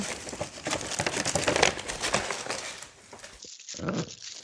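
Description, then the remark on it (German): A plastic bag, bag number 8, is handled and opened with dense, continuous crinkling and rustling for about three seconds, then a short pause and a brief final crackle. No one speaks. “Ähm, ja, aber bevor du das machst, äh, dann nimmst doch mal bitte die Tüte Nummer 8.”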